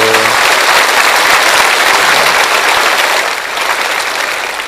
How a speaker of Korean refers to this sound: 네, 예, 분당 박수 쳐주세요.